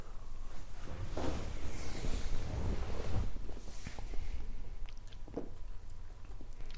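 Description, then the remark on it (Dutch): Crackly fizzing and sipping of a heavily carbonated drink during a toast, with a few faint, sharp clicks late on that could be glasses touching. Nobody speaks. “Zullen we dat gaan doen? Klinken? En drinken.”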